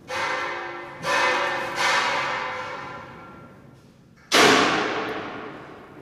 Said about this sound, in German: Man hört's. Die Handwerker von der Meierschen Hofkunstanstalt sind gerade bei der Arbeit. Sie setzen Lanzettfenster ein in der Kunsthalle.